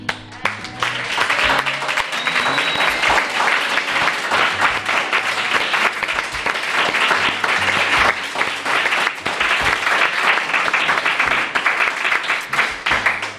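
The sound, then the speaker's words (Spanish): Sustained applause from a group of 23 travellers in Dublin, Ireland, a dense, steady wash of many hands clapping at an even loudness for about thirteen seconds, with no talking over it. “ya los minutos finales del Colegio Invisible de hoy desde la capital de Irlanda, Dublín, acompañados de 23 viajeros que ya son, pues eso, 23 amigos, y a los que damos las gracias por los maravillosos días que nos habéis hecho pasar con este aplauso.”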